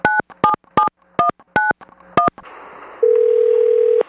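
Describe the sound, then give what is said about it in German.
Six quick touch-tone dialing beeps of a recorded telephone call in an uneven rhythm, a short pause with faint line hiss, then a steady telephone tone that holds clearly to the end. No voices. “Wir haben dieses Telefongespräch gestern aufgezeichnet.”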